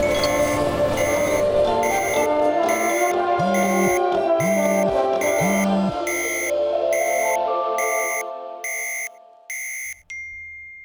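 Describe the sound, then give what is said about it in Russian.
Many shoppers' phones chime at once with air raid alert tones, a dense overlapping cluster of repeated high beeps pulsing steadily, with a few low buzzing bursts, before the tones thin out and stop. “у всех людей вокруг начинают срабатывать такое треньканье по телефону”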